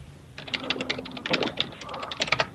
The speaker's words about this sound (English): I hear you typing. I hear everybody up there typing.